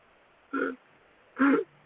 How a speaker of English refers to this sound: Shut up, burp. I love that.